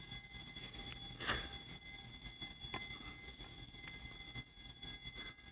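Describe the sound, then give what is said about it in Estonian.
A fire alarm rings steadily during a fire drill in cold weather, a thin continuous tone that never lets up, with a brief noisy burst near the start and faint background clatter. “ja nüüd see undab raudselt poolteist tundi seal.”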